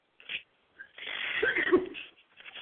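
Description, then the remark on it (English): A short breathy intake, then a loud, noisy sneeze burst lasting about a second, with a faint hiss trailing after. No talking. “Sneeze those well, germs over here on me.”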